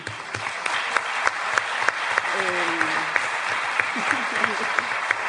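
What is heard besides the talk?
audience applause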